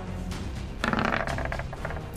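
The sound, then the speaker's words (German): A quick burst of dice clattering and tumbling across a table, several rapid clicks over about a second, followed by a faint final tap. “Äh, soll ich würfeln oder willst du würfeln?”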